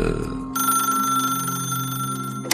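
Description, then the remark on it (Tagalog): A telephone rings with a steady electronic trill lasting about two seconds, fairly loud, preceded by a short low rumble and ending abruptly with a click. “Ah, eh, tumawag lang po ako para mag-shoutout.”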